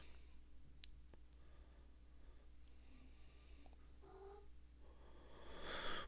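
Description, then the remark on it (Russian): A cat gives a couple of soft, short meows, with a few faint clicks before and a brief rustling noise at the end. “Привет, кот.”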